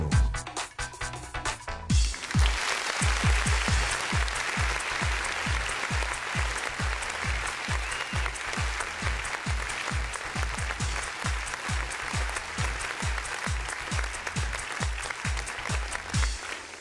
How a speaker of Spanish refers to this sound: Hola amigos, ¿cómo están? Aquí comenzando un fuerte aplauso para todos ustedes